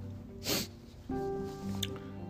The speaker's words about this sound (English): or a sniff.